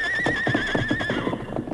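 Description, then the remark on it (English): A white horse lets out one loud whinny, high and quavering for about a second before trailing off, with heavy thudding hoofbeats underneath. No one speaks. “Ah, him plenty strong plenty good horse. I wonder if he'll take a saddle.”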